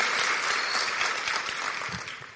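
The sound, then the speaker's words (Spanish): A crowd applauds steadily, a dense wash of many hands clapping at an even, sustained loudness for the whole stretch, with no voices standing out. “veo gente que está haciendo cosas diferentes y pues eso el aplauso es para ustedes, porque eso, eso va a marcar la diferencia, pero con más fuerza, pues un aplauso así bien fuerte,”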